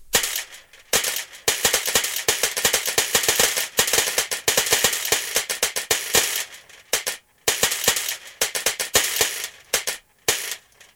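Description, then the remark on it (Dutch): Many small hard pepernoten cookies, 42 in all, drop one after another into a jar, making a rapid, irregular stream of sharp clicks and rattles that continues for about ten seconds, fairly loud, with no talking. “Ik denk dat ik 40 pepernoten hoorde vallen.”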